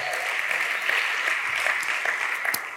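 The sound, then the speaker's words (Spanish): A church audience applauding steadily at a service, a dense wash of many hands clapping at once with scattered sharper claps, sustained and fairly loud throughout with no one speaking. “Dale un fuerte aplauso.”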